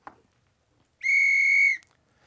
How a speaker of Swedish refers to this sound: En eh, ja, domarvisselpipa kanske.